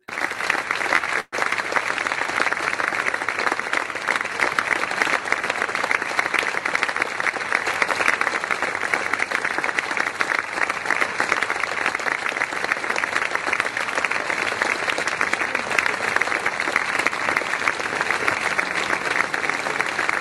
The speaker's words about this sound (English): For our sponsors, we offer an applause, and it's a sincere applause. So here we go with the applause.